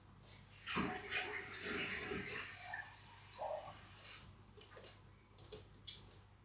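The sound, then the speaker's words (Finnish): Water pours from a tap in a steady hissing stream for a few seconds, with small clinks and splashes as it fills a small drinking glass, then stops, followed by a few faint handling clicks. “Nyt kun mä käyn vielä hakemassa tuosta pienen lasillisen vettä, niin Kyllähän tää tästä lähtee.”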